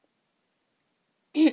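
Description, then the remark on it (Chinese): After a long stretch of silence, a voice makes one short, throaty cough-like sound at the very end, a brief voiced burst imitating a cricket coughing. “一只蟋蟀咳嗽两声，开了枪。”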